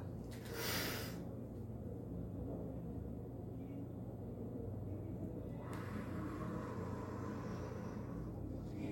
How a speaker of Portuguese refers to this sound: Você tem que botar toda a respiração para dentro. Você não pode fazer uma respiraçãozinha assim. Não é isso, tá?